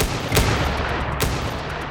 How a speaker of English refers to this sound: Suddenly, a small army of officers gathered on the other side of the cell block door. Without a sound backup plan, Coy opened fire with a rifle he'd stolen from the gallery.